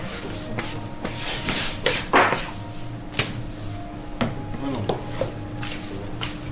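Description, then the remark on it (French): Bakery workshop ambience: dough being worked with soft rubbing, shuffling and occasional dull thumps, set against a steady low machine hum. “J'ai choisi cet extrait pour ces bruits d'ambiance qui nous immergent dans le laboratoire”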